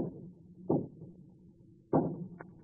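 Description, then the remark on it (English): Two dull, solid knocks on a door, spaced more than a second apart, with a fainter tap just after the second, over a low, steady background hum. No one speaks. “That's a knock, all right.”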